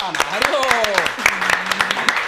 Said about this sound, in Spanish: Ah, el aplauso, hombre